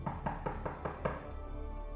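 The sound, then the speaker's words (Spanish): Soft knocking on a wooden door, about six quick, evenly spaced raps lasting roughly a second, followed by quiet room tone. No one speaks. “Mientras tanto, el lobo se fue a casa de la abuelita, llamó suavemente a la puerta.”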